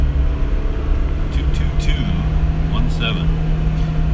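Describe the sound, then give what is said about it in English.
An old car engine drones steadily at high revs in cold weather, a continuous low rumble with a sustained tonal hum, heard from inside the vehicle with a few faint clicks over it. “Uh, if you can hear my car, it's revving really high.”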